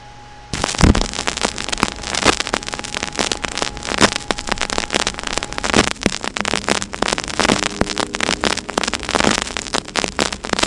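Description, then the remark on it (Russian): Loud, dense crackle from the more worn first side of a vinyl record begins after a brief quiet moment and runs steadily to the end, a constant patter of sharp pops and clicks with no voices or music over it. “Не удивляйтесь, если а, будет сильнее трещать, чем на первой а пластинки.”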